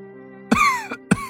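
A man, the new emperor in a narrated story, coughs heavily three times while clutching his chest: a long, harsh, rasping first cough, a shorter, softer second, then another forceful one. No talking, only a faint steady hum between the coughs.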